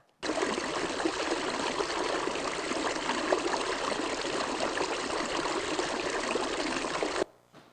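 A natural stream babbles and rushes in a dense, steady wash of water noise, fairly loud, holding constant for about seven seconds before cutting off abruptly. No voices.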